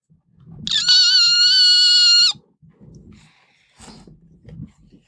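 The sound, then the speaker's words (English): A loud, steady, high-pitched whine held for about a second and a half, seemingly a voice imitating a vacuum cleaner plunged into fluff, followed by quieter rustling and low murmurs. “And Serenity plunged the vacuum deep into the dreadful fluff, and it made what an awful sound it made.”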